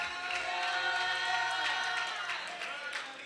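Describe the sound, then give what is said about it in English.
A church audience erupts in sustained clapping and shouted praise to the Lord, a dense wash of hands and raised voices at steady volume for a few seconds. “Come on, y'all clap your hands and lift your voice to the Lord.”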